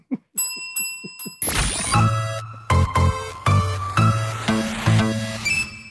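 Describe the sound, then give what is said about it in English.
A bell rings loudly, struck over and over in a quick, slightly uneven rhythm, each bright metallic ring blending into the next. Before it, a few soft faint taps. “I know we don't like the bell means we don't revisit yeah.”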